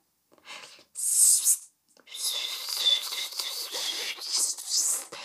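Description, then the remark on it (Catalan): A voice imitates failed whistling: a short breathy puff of air, a pause, then a longer stretch of airy, hissing blowing with only faint hints of a tone, fairly loud. “Però per més que ho intentava, el xiulet no li acabava de sortir.”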